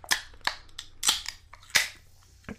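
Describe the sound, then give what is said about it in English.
Drink cans of a Bangster Berry flavored drink being cracked open: several sharp, crisp pops and clicks spaced irregularly, a couple trailing into a brief hiss of escaping fizz, with no talking. “Should we crack these bad boys open?”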